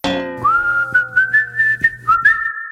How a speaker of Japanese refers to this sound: バクとヒトデちゃんは口笛を吹きながら視線をそらしました